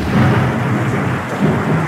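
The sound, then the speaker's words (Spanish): A loud hailstorm: dense, steady pelting across the whole two seconds over a low rolling rumble of thunder, with no voices. “Son granizo.”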